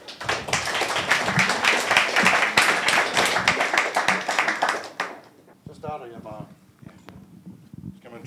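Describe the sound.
An audience at a lecture event claps for the speakers steadily for about five seconds, a dense patter of many hands that then stops abruptly, followed by a man beginning to speak.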